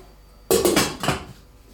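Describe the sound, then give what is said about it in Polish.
A metal lid clatters onto a frying pan in which meat is being fried, a sharp clank followed by a few quick rattling settles, with a faint sizzle in the background and no talking. “Przykryję sobie tylko przykrywką, żeby nie odparowywać tego mięsa.”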